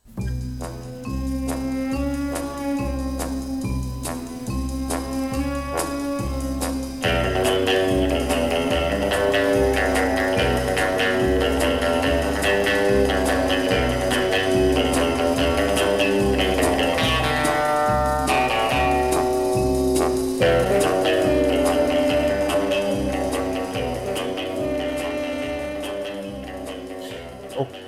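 The original orchestral spy film theme recording from the Dr. No soundtrack plays loudly and steadily for the whole stretch, with a driving rhythmic bass pulse under bold melodic lines and brassy swells, no voices present.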